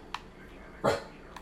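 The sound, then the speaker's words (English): The speaker's dog gives a single sharp bark near the middle, with a couple of faint, brief yips before and after against quiet background noise. “He doesn't ever stop.”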